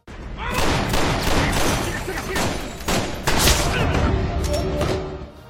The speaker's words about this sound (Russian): Уже в скором времени дом, в котором он укрывается, был со всех сторон окружен спецагентами. Спецназовцы выбивают дверь, врываются вовнутрь, начинается перестрелка.